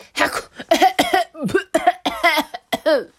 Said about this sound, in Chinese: 别说打喷嚏了，…咳嗽咳到停不下来，他看起来真的很不舒服哎。